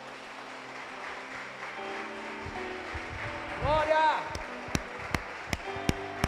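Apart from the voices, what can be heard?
audience applauding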